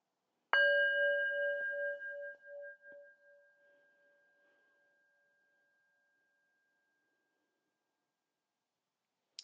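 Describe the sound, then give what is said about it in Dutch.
A singing bowl is struck once and rings out with a clear, sustained metallic tone that slowly fades over several seconds, heard alone with no talking. “Je hoort geluid van mijn klankschaal.”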